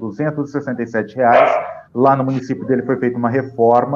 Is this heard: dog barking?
yes